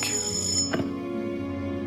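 A telephone rings at 108 rue du Bac with a steady, bright electronic tone that holds for about two seconds, with a brief click partway through. No one speaks.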